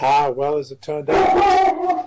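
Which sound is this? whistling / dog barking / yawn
dog barking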